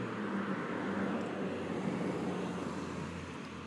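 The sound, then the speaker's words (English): Steady traffic noise from many cars passing on a road outside at night, a continuous broad rushing roar over a low engine hum, holding level before easing slightly at the end. No one speaks. “Holy crap, there's a lot of cars tonight.”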